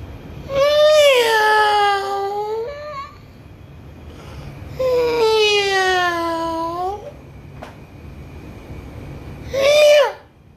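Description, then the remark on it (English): A man's voice imitates a kitten's meow for his children at home, in three drawn-out, whiny calls: two long wavering ones and a short final squeak, loud, with nothing else in the background. “It doesn't even sound like a kitten. It sounds more like a fucking race car.”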